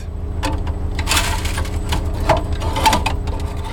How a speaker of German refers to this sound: hängt die Schaufel über ein großes Sieb, dann wird sie geleert.